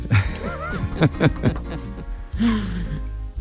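A dog lets out a quick series of short, sharp barks, mixed with breathy vocal sounds, followed by a drawn-out whine or groan near the end.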